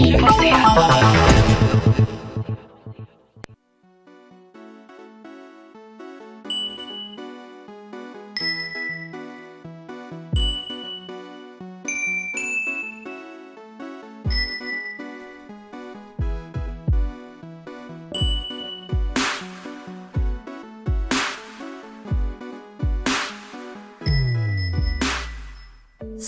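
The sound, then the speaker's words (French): A bright jingle for the radio station choc.ca, opening the show Sans Dentelle, built from ringing chimes and tinkling bell tones over a soft musical bed, with sharp accented hits near the end; no one speaks. “Euh, oh, on entend encore le jingle.”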